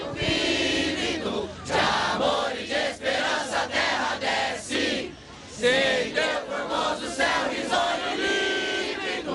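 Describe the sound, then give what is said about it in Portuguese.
Protesting truckers sing the national anthem together loudly and continuously, the unison melody carried in long sustained phrases with brief dips between lines, and no single voice standing out. “Eles cantam também o hino nacional e na sequência eu volto com vocês aí no estúdio.”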